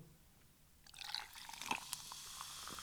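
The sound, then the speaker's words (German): Spezi (cola and orange soda) with ice cubes fizzing after a pour: a soft crackling hiss rises after a quiet start and keeps going, broken by a few small, bright clicks like ice shifting, fairly quiet. “Spezi mit Eiswürfeln drin. Hörst du das?”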